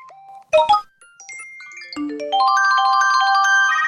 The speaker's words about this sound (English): So you're probably freaking out as my phone is making all these noise and wondering if it's your phone that's making all these noise and thinking to yourself, "Oh my god, it's a text message, it's a DM, it's a it's a god knows what."